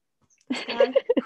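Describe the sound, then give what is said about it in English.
After a brief silence, a female cat lets out a quick run of short, chirpy meows in an uneven rhythm, fairly loud, with no one talking. “If you don't like cats, this is also not the podcast for you.”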